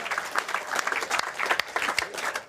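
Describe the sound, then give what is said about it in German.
Steady audience applause: a dense, continuous patter of many hands clapping at once, sustained at an even loudness with no voices standing out. “Applaus für Holgi.”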